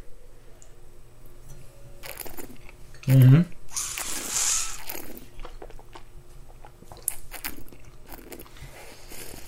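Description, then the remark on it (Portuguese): Mouth noises of tasting a 2015 Rioja red wine that has been open for over an hour: a brief hum, then a loud, hissing slurp as air is drawn through the wine, followed by softer swishing and smacking sounds. “Vocês agora vão ouvir os barulhos sensuais da degustação do vinho.”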